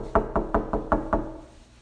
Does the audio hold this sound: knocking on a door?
yes